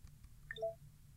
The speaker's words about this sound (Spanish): y ahí escucharon ese sonidito porque llegué al final de las opciones de menú.